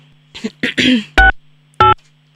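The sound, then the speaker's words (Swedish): A phone being dialed to call mom: a few brief rustling, breathy bursts, then two loud, buzzy electronic beeps like keypad tones, spaced about half a second apart. “Men nu, nu ringer vi mamma.”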